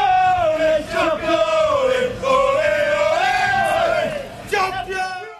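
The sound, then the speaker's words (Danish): A large crowd of Manchester City football fans chants in unison at Etihad Stadium, celebrating the club's championship, sustained and loud, with voices rising and falling together in a drawn-out, sung refrain. “Og det mesterskab, det fik altså flere fans til at tage ud til Etihad Stadium, hvor City de normalt spiller for en rigtig mange mennesker, og vi kan måske lige prøve at høre, hvordan det lød.”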